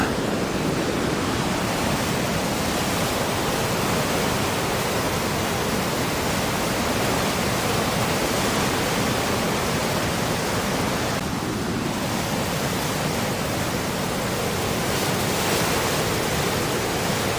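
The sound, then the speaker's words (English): A steady, powerful roar of a rushing flooded river fills the scene, loud, churning without pause or change for the whole stretch, with no voices present. “I mean, if I fell over into that river, I'm gone.”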